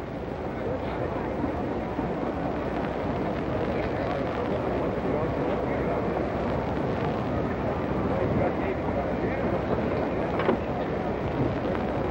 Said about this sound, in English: It's briskly windy here, and the temperature is approximately 34.